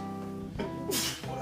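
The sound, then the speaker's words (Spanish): A single sharp sneeze bursts out, a quick breathy intake followed by a hissy, forceful release, over a steady humming tonal background. “Salud.”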